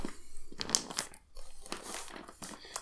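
Parcel packaging being torn open: a steady run of crinkling, rustling paper and plastic with several sharper ripping bursts, fairly quiet, with no talking over it.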